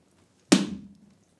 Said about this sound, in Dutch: Hij geeft me een harde klap. In mijn gezicht.